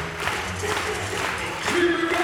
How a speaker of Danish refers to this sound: har fået dem til at klappe i takt nu. Der er altså stemning nu. Det er det, de er kommet for at se.